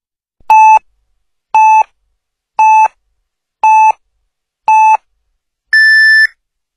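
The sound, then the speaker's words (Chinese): Radio hourly time signal beeps on Zhengzhou News Radio marking 23:00 Beijing time: five short, evenly spaced mid-pitched pips about a second apart, then a longer, higher-pitched final tone marking the hour. Loud and clean, with no talking. “北京时间二十三点整。”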